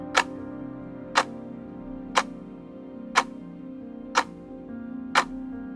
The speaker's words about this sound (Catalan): També en aquesta sala s'aixecava recolzant contra el mur de ponent un gegant rellotge de Venús. El seu pèndol es movia amb un tic-tac sort, passat i monòton